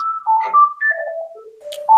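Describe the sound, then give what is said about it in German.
A telephone rings with a melodic ringtone, a quick run of bright electronic notes stepping up and down in pitch, loud, with no one speaking. “Telefon, aber ich gehe nicht ran.”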